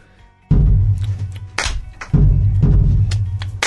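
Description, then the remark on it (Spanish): Two deep, booming bass drum (bombo) strikes about a second and a half apart, played to mark the beat, each ringing on with heavy low resonance, while shorter bright, sharp hits sound in between. “Por ejemplo, yo voy a marcar primero el bombo, que es este tambor.”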